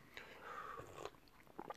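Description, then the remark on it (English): Quiet sipping of black tea, with a few short wet slurps and mouth clicks spread over a couple of seconds and no talking. “Got to take a sip of black tea.”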